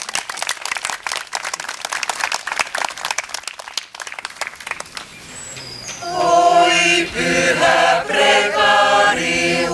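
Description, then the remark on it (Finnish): An audience applauds conductor Petri Tiainen at his first concert leading the ensemble, with dense, steady clapping for about six seconds, tapering off as music with sustained tones begins and carries on to the end. “Ja tämä on hänen ensimmäinen keikkansa meidän kanssa, eli antakaa Petrille aplodit.”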